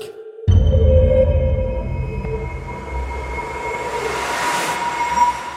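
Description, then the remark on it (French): A heavy mechanical rumble starts abruptly as the Ares 2055 spacecraft lands on Mars, with a steady depressurization hiss and faint whining tones that swell slightly toward the end. “Un bruit de dépressurisation accompagne l'atterrissage du vaisseau Ares 2055.”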